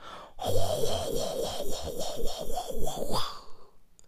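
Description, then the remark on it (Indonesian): A voice imitates a train passing over a bridge: a continuous, rhythmic clattering drone with a wavering pitch, lasting about three seconds, fairly loud, with no other talk. “Kalau ngelewatin, tau nggak lu kalau misalnya kereta lagi ngelewatin apa namanya jembatan Bunyi itu langsung kayak”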